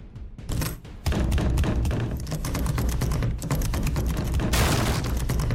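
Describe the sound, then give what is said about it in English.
A door is battered with heavy, relentless blows: loud, dense thuds and crashes in rapid succession, continuing almost without pause, with no voices. “They're trying to batter down the door!”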